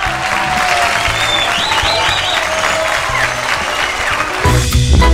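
Steady, dense applause from an audience for prize winners, a sustained wash of clapping at fairly loud level for several seconds, with a faint murmur of voices mixed in and a slight change in texture near the end.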